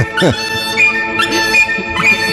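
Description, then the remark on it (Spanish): A shrill, buzzy Chinese bamboo wind instrument, an oboe-type reed instrument with a trumpet-like bell, plays loud, holding bright sustained tones broken by quick swooping bird imitations that recur every second or so. “Esto ya suena más a bambú y tal, pero el arranque ha sido muy Plaza el Obradoiro, gaita tampoco, ¿eh?”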